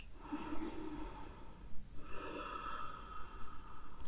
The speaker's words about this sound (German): Nimm immer wieder mal einen Atemzug. hörbar von der Nasenspitze und lasse ihn auch hörbar in deinem Körperrumpf ausströmen.